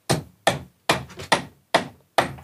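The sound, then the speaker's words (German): Six sharp hammer blows land at a steady, even rhythm, each a bright impact with a short ringing decay, as a nail is hammered into a wall to hang a cuckoo clock. “Ich brauche einen Nagel und einen Hammer.”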